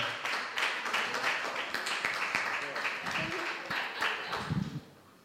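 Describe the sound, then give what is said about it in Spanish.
An audience applauds in a dense, steady wash of clapping that holds for about five seconds, with some voices mixed in, before easing off at the very end. “Tú vas a Heterolandia, aplausos”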